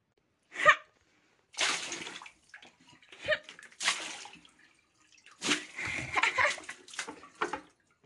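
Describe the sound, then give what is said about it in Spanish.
Hot water from a saucepan pours and splashes across a kitchen floor in several uneven bursts, moderately loud, with short quiet gaps between the gushes and no voices. “Pipi calentó agua en una cacerola y la derramó resueltamente por el suelo de la cocina.”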